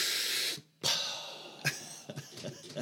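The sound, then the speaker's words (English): A voice imitates Green Arrow taking a long, sharp inhale of a marijuana toke, a hissing draw of breath that cuts off, followed by a second sucking inhale and a few short, quieter breathy sounds. “that was Green Arrow taking a toke.”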